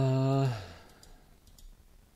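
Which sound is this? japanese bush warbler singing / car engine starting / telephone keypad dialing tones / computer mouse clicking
computer mouse clicking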